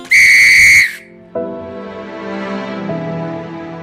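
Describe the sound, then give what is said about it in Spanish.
A single loud, shrill police whistle blast lasting under a second, followed after a short pause by a lower, sustained droning tone. “Justo cuando la aguja pasó sobre el 12, se escuchó un silbato.”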